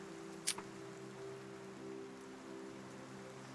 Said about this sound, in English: I want to enjoy the rain.